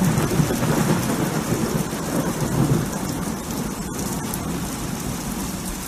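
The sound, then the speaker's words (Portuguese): Steady, dense rainfall pours down without pause, a broad hissing wash with a low rumble underneath like thunder. No voices are heard. “Pode deixar aí a chuva. Para a gente sentir esse, esse som da chuva.”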